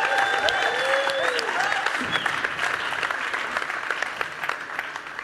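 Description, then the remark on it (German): A crowd at ICF München claps steadily in sustained applause, dense and even throughout, with a few whistles and faint cheers rising over the clapping early on. “für alle die, die ihn nicht kennen. Applaus”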